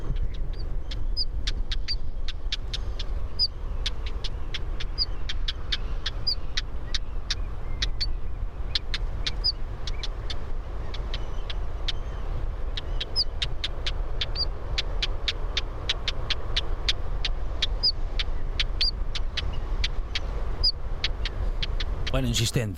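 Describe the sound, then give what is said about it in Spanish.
A small bird, about 15 centimetres long, gives a continuous alarm call, sharp ticking notes repeated rapidly and steadily throughout, set against a constant low rumble like road traffic. “un, reclamo, una alarma que tiene bastante continuo, Luego también tiene un pequeño trino a la hora del celo.”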